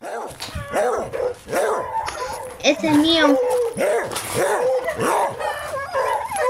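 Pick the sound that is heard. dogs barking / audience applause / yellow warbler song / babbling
dogs barking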